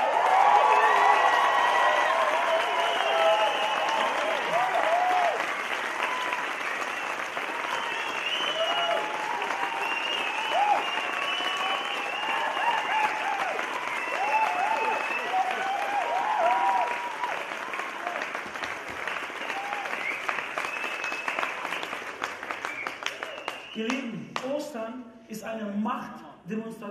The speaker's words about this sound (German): In der Bibel gibt es immer wieder, macht einen Lärm für unseren Gott, macht einen Lärm für Jesus. Was haltet ihr davon, wenn wir jubeln, klatschen, was ihr könnt für Jesus, der auferstanden ist? Ja.